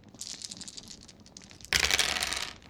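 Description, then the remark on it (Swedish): Dice are rolled for a check to spot weaknesses: they rattle with a scatter of light clicks, then tumble more loudly across a hard surface in a dense, clattering burst before settling. No one speaks. “Du kan absolut slå ett slag för se svagheter.”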